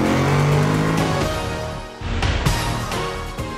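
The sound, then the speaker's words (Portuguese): A car engine revs loudly, its steady drone breaking off before surging again as the car is put into first gear and accelerates hard, with no voices. “Sérgio engata a primeira e pé no acelerador.”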